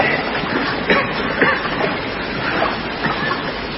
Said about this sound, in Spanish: Pasan a una galería más pequeña por la que corre el agua.